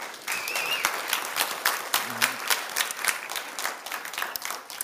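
An audience at a church service applauds steadily for several seconds, dense overlapping claps at moderate volume, with a brief cheer or voice rising faintly amid the clapping.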